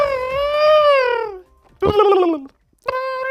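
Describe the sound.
A person imitates whale song with their mouth to demonstrate how whales produce their songs: three long, wavering tonal calls that slide downward in pitch, strongly harmonic and moaning, separated by short pauses.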